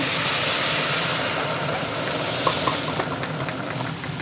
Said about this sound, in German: ich habe jetzt hier das Gemüse auch schon angebraten, also schön schwarz und knackig. Und da kommen jetzt noch zwei Liter Sahne dran.